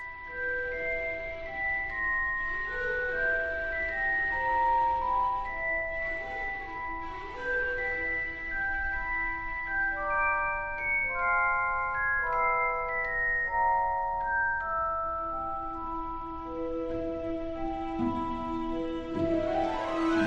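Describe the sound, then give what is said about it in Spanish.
An orchestral film score from Harry Potter plays on its own, a flowing melody of bell-like and string tones weaving over sustained harmonies at a steady, moderate volume with no voices. “Pero de momento vamos a escuchar un poquito de Harry Potter.”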